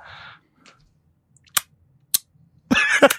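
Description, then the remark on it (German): Lip smacking: two short, sharp wet clicks spaced apart, then a louder, longer burst of smacking at the end, with near-silence between. “Ach, du, du, du schnallst, mit, also du schmatzt so ein bisschen.”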